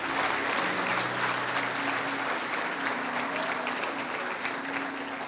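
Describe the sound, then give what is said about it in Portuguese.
An audience applauds Jesus in a steady, dense wash of clapping that lasts throughout, with faint sustained tones humming underneath. “E se você crê, aplauda Jesus, aplauda, aleluia.”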